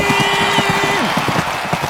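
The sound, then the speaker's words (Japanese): Rapid, rhythmic hoofbeats of a racehorse galloping in a race, the Toho Cup, thud along steadily for the whole stretch, with a sustained tone humming underneath for the first half. “スタートしました東方カップと早速飛び出したのは2番放送音響かなんとジョッキは身を乗り出し足音を収録しているとてもクリアな音質安定している聞こえてくるのは勝利の足音ゴールイン”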